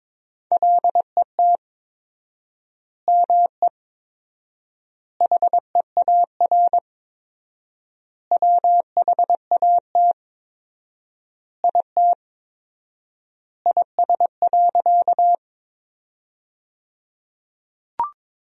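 Morse code beeps at a brisk 22 words per minute with 4x word spacing, sending sentences from the top 300 words, a steady mid-pitched tone keyed into quick dots and dashes, with clusters separated by long pauses and a brief click at the end. No voices.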